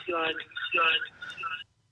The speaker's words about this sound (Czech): Halo? Tak někdo nám tam visí na telefonním sluchátku, možná ani neví, že je ve vysílání.